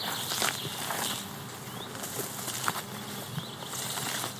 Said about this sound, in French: ce sont les abeilles ça. Hmm. Peut-être pas trop les déranger, hein